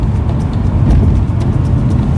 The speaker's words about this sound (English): our car that now has snow tires on it.